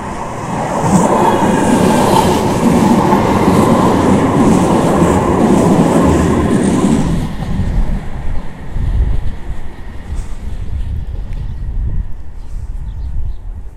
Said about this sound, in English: Right, tram's coming.